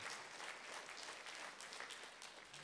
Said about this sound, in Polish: Jak jedna osoba klaszcze, wszyscy klaszczą. To jest dobre. To jest dobre.